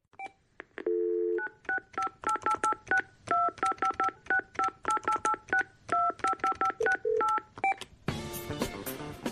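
A telephone keypad dials a long number: dozens of quick, evenly paced two-tone beeps, clear, after a brief steady tone, ending in a burst of harsh static.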